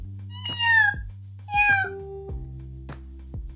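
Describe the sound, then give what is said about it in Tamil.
Two clear, drawn-out cat meows, one right after the other, fairly loud, followed by a few soft clicks and thuds. No one speaks. “அப்படின்னு ஒரு பூனை அவர் வயிற்றுக்குள்ளே அனுப்பிச்சிருக்கேன் இப்போ அந்த பூனை எலியை பிடிச்சிட்டு வெளியில் வர்றதுக்காக இந்த மீன் துண்டை வச்சு ஆட்டிக்கிட்டு இருக்கேன்”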